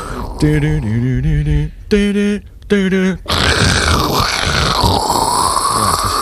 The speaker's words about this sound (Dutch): jullie wat daar te horen is? Eh, die hele harde ruis, toch? Het is gewoon ruis, want het is dan